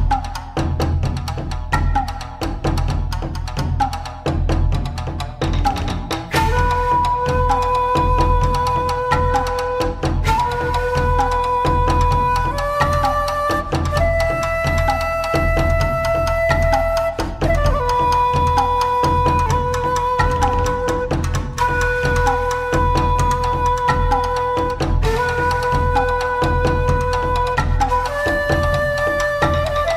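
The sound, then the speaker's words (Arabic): An arranged version of a video game soundtrack track plays on its own: a quieter opening swells into a full, steady arrangement of sustained melodic notes stepping over a deep, constant bass, loud and continuous throughout. “على العموم عندنا ثلاثة تراكات وهم ارينج راح تكون ولكن راح نبتدي التراكات بايقونة السلسلة”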